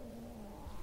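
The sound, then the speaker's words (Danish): A low, sustained rumbling growl from a person's stomach drones steadily for under a second, quiet, with a faint gurgling texture, and no voices present. “Nej, det er min mave, der knurrer.”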